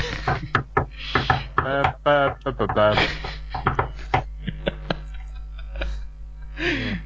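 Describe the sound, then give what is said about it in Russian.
A series of sharp taps in an irregular pattern of short and longer gaps, knocking out the number 800 in Morse code, with brief bursts of voice between some of the taps. “Вот, а теперь попробуй выбить это азбукой Морзе.”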